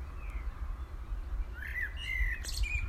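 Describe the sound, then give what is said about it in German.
Seagulls searching for food fly over the sea at a beach at sunrise. They call over a steady low rumble of wind and water, with a few drawn-out, slightly nasal cries rising and falling in the second half. The calls are moderately loud, with no talking. “Möwen flügen über das Wasser auf der Suche nach Nahrung.”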